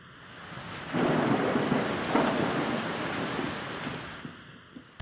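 A thunderstorm jingle effect introducing a lightning round of quick questions: a deep rumble of thunder swells in after a quiet start and rolls on over steady rain before fading, with no one speaking.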